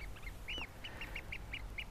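A Eurasian oystercatcher gives a quick run of shrill, piping calls, about seven or eight sharp notes in an uneven rhythm, clear over a low background rumble.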